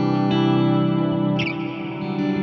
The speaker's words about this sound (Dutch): Dit is mijn galm, dit is met, eh met Wet Stereo Reverb van Neun De Neunauer, ja, ja, Ja, die vind ik ja. geweldig.